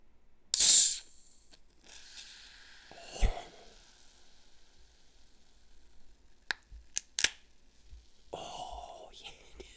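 A beer can cracks open with a sudden loud, sharp fizzing hiss, followed by a few quiet clicks and a softer fizzing rush near the end. Faint whispering runs underneath.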